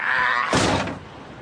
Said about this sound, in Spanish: Se vuelve hacia el rugido del motor y al ver el vehículo alejarse golpea la furgoneta con el puño.